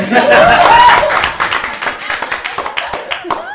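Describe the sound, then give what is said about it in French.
A small audience claps and cheers, with a rising whoop and some laughter over the opening burst, then the applause thins into scattered claps and voices. “merci, euh, merci tout le monde pour ces applaudissements.”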